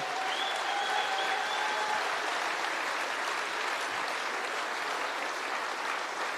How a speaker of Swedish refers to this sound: Vi har ju alla blivit så välsignade av lovsången under den här konferensen. Jag tycker vi ska ge alla lovsångare och musiker en underbar applåd.